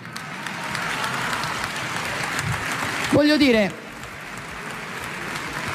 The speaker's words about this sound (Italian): Non faccia partire gli applausi dell'aula, per favore.